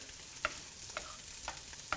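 Whole peeled tomatoes without skins being crushed in a pot, with four evenly spaced wet, clanking squishes about half a second apart over a soft simmering background. Fairly quiet, no talking.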